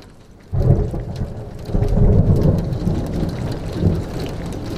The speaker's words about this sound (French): C'est un dimanche pluvieux, un sombre dimanche.